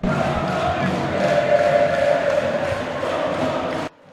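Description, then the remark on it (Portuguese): A dense roar of a large football stadium crowd at Independência shouting together, loud and sustained with surging peaks, continuing steadily for several seconds before cutting off abruptly. “E a torcida, a torcida grita. grita.”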